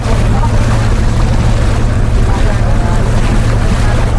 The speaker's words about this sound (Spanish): Así suena este catamarán que está saliendo ahora del puerto de Barcelona.